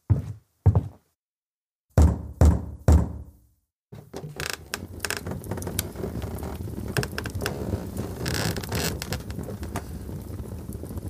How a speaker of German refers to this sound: Um Mitternacht klopft er an Atowskis Labortür mit einer Flasche von feinstem Cognac in der Hand.